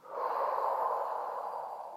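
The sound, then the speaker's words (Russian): A short inhale followed by a long exhale twice as long, done as a calming breathing exercise against stress: a slow, steady breath of rushing air, fairly soft, drawn out for about two seconds without any talking. “И снова вдох короткий, выдох длинный.”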